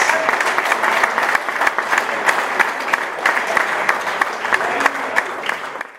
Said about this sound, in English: Ladies and gentlemen, for now, though, please give a huge round of applause to Andy White, Neil Richardson, and Stuart Watkiss.